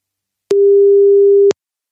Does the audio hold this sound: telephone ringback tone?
yes